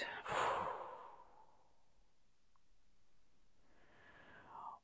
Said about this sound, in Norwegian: Pust godt inn med nesa. Og hold pusten. Og pust ut.